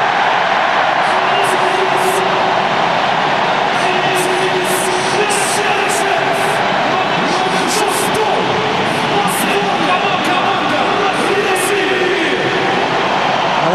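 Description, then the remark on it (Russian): Football fans roar after Denis Cheryshev scores Russia's second goal against Turkey, 2-0 in the 78th minute, a loud, dense wall of crowd cheering that holds steady for the whole stretch without dipping, with no clear individual voices standing out. “так болельщики встречают этот гол.”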